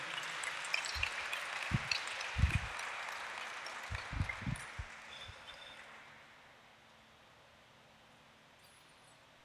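An audience applauds the Lord, a dense, fairly soft wash of clapping for several seconds with a few low thumps mixed in, then tapering away into quiet.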